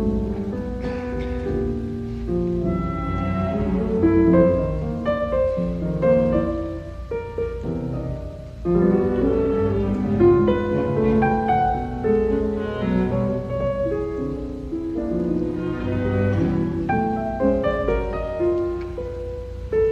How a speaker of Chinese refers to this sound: 比如，我们来听一下同样对于坂本龙一影响很深的一位现代音乐家勋伯格他的作品第四十二号钢琴协奏曲。